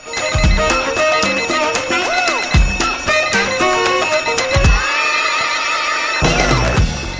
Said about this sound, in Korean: 피할 수 없으면 즐겨라. 피하고만 싶은 월요일 아침. 피로는 덜어주고 웃음은 더해주는 알람 조우벨과 함께 일어나 볼까요?